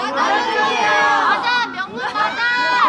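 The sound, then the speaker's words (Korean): A big group of middle school students visiting outside the KBS building shouting and cheering together, a loud, continuous wall of overlapping voices that swells and dips briefly before surging again. “어, 아저 아저씨 좋아해요? 그럼 소리 질러.”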